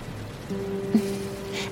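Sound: heavy rain falling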